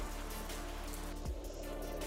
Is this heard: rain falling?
yes